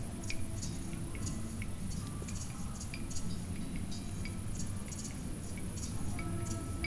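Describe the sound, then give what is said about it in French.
Goats chew and lick at a corner of a tent's fabric, a steady run of wet, crunchy smacks and squishes, with a faint high hum of crickets and other insects and a low rumble in the background. “Ça se mélange au son de la nature, ça se mélange au gris-gris, des grillons, et au mâchouillement des chèvres qui viennent de temps en temps lécher un coin de notre tente.”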